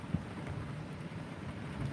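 Steady, soft rain, slowly easing off, hisses evenly throughout, with a faint low rumble underneath and no voices, a quiet, continuous wash of sound.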